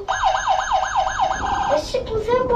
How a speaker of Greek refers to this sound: Έλα παπά, ο Άι Βασιλής μου πήρε μια πραγματική πυροσβεστική. Άκου